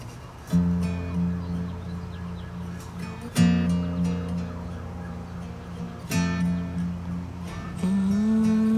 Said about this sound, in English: All right, on cue. Got some sirens going on in the background.